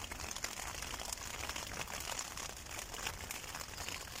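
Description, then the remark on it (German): Rain pattering on a tent, a steady, dense crackle of countless small drops tapping the fabric at an even level throughout, with no voices. “war es auf jeden Fall eine sehr, sehr gute Entscheidung, dass ich ähm, das Zelt jetzt hier aufgebaut habe, weil wenn es jetzt hier echt anfängt zu regnen, das ist echt nicht das Intelligenteste.”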